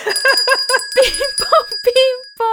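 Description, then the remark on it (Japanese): A bright quiz-show correct-answer chime, a quick repeated two-note ding-dong, apparently voiced by a person imitating it, with a steady ringing tone underneath, fairly loud, marking a correct answer in a Japanese vocabulary quiz. “ピンポンピンポン”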